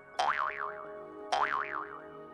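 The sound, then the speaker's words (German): A jaw harp, a small instrument held against the teeth with a slightly open mouth, is plucked twice, about a second apart, each twang ringing with a wobbling, wah-like buzz that slowly fades. Fairly loud, with no talking. “Bei einem Brummeisen handelt es sich um ein kleines Musikinstrument, welches man sich bei leicht geöffnetem Mund an die Zähne hält und dran zupft.”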